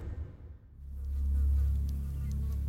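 Flies buzz in a steady, droning hum that swells louder after a brief dip, then holds as a thick, continuous whine with no voices.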